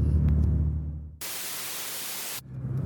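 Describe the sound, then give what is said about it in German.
A flat hiss of white noise, used as a separator sound, bursts in abruptly for just over a second, then cuts off sharply, with a low steady rumble like a car interior before and after it. “dass es sich dabei um den White Noise oder das sogenannte weiße Rauschen handelt”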